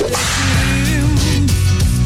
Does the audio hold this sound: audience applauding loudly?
no